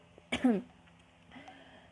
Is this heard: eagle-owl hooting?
no